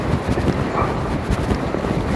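A truck passes by behind the speaker on a wide, quiet street, a steady, loud low rumble with a rough, noisy texture that holds fairly even for the whole couple of seconds, with no voices.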